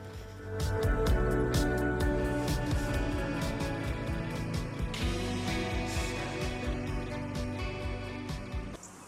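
A band's song plays continuously at a steady, fairly loud level, with dense layered sustained tones over regular drum hits, and no one talks over it.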